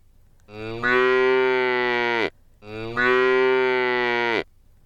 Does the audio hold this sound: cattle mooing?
yes